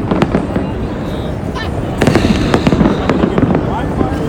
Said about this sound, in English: more fireworks going off.